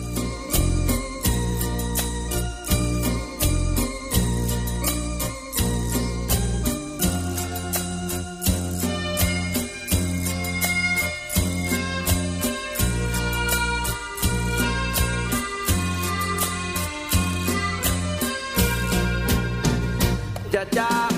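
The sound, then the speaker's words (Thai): A song plays at full volume for about twenty seconds during a program break, with a steady driving beat, punchy bass and bright melodic instruments layered on top. No one speaks over it. “เดี๋ยวช่วงนี้เราเบรกกันก่อนนะครับ ฟังเพลงพระพลอะจากทางรายการสักครู่ช่วงหน้าเรามาคุยต่อในเรื่องนี้ครับ”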